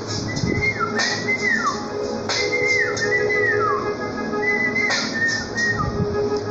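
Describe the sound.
A person whistles an imitation of a small bird: a few sliding, chirpy phrases that rise and fall, repeated in short bursts over a steady background hum, clear.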